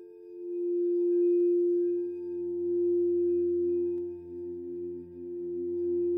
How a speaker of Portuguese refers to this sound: Ouçamos agora o último som de nossa passagem pelo monastério. Com os olhos fechados, escutamos o soar de tigelas tibetanas. Aos poucos, uma calma profunda vem chegando.